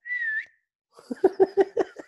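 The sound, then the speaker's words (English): A girl whistles one short, steady high note, rising slightly at the end. After a brief pause comes a quick run of about six breathy, pulsing bursts, moderately loud. “She can whistle. Yeah, you can whistle.”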